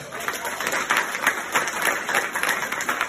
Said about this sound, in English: So give yourself a, a round of applause.